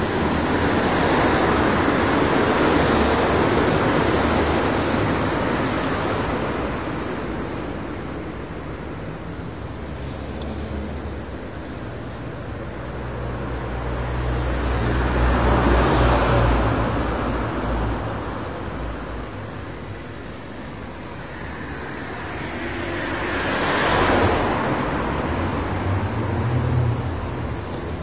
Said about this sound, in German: Komm, wir schweigen mal eine Runde. Ja. Schön Autolärm.